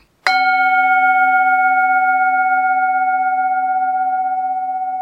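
A single spoiler gong sound effect rings out once, a sharp metallic strike that sustains a bright, steady tone and fades only slightly over several seconds, with no voices.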